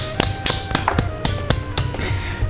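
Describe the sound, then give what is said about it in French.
A short burst of hand clapping in applause, a few sharp claps roughly four per second, fairly loud, over a faint steady background tone, with no talking. “Donc je pense que voilà, il faut applaudir un petit peu. Bravo, félicitations.”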